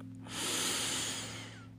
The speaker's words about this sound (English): I'm literally scientifically oxygenating my blood, and then therefore all my cells are being oxygenated by this deep breathing we're practicing.